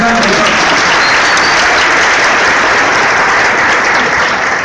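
Loud, sustained audience applause, a dense wash of many hands clapping at a steady level for several seconds, with a faint murmur of voices mixed in at the start.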